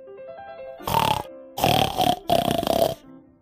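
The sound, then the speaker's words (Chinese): In a children's story, the character Amary imitates a pig with three loud, raspy grunting snorts, the last two longer and close together, over a faint, soft melody underneath. “亚马瑞在学猪叫。”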